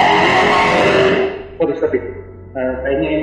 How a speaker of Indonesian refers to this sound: ini suara motor yang lewat